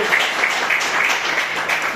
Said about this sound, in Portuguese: E as palmas que agora recebem.